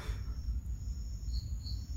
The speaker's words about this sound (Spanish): es un grillo ahí